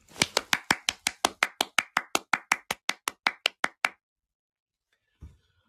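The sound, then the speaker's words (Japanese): A single person claps about seventeen times in a quick, steady rhythm, each clap sharp and bright, then the clapping stops and silence follows, broken by one faint low thump near the end. “拍手一人って寂しいんだよな、マジで。”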